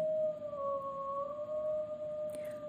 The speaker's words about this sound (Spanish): Apenas se hizo de noche, los lobos llegaron. Al escuchar los primeros aullidos, Rosa Luna se asomó a la ventana.